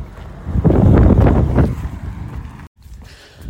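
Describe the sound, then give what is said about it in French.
Loud wind buffets the microphone outdoors in a rumbling gust that swells for about a second, then eases into a softer blustery hiss with a brief dropout near the end. No one speaks. “Ah, je suis désolé, il y a du vent.”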